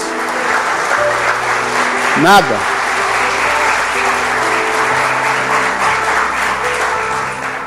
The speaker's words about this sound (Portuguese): Dá salva de palmas a Deus.